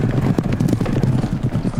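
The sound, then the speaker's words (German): Horses ride past with a rapid, overlapping clip-clop of hooves, fairly loud, over a steady low rumble of background noise. No one speaks. “Pferde reiten vorbei”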